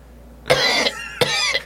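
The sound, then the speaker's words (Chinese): A person imitates the drawn-out coughing of a sickly old uncle character from a video: two rough, loud coughs, each with a sharp burst trailing into a strained, voiced rasp, separated by a short pause, with no other talking. “我就想说，OK，他咳嗽咳了好久，然后突然说：“ 我要吃仙草， 然后可能又再咳两下，这样 想说好奇怪的人。”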